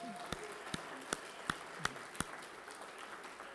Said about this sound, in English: Let's give the Lord one more good hand clap.